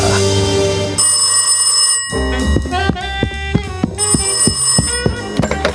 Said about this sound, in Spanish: Cada vez que sonaba el teléfono, todos acudíamos a la llamada.